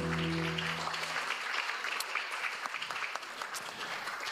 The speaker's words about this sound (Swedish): underbar applåd här.